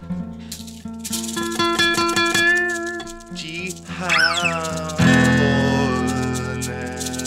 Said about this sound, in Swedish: Hörde du Rattlesnake?